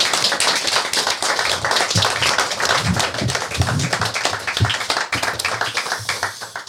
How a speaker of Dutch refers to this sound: Absoluut. Applaus voor Absoluut.